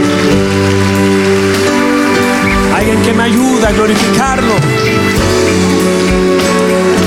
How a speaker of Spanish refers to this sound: Y alguien que me ayuda a darle un aplauso fuerte al Señor.